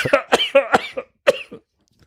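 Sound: coughing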